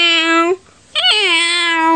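A person imitates a kitten with two loud meows: a short one, a brief pause, then a longer, drawn-out one with a slight rising inflection at its start.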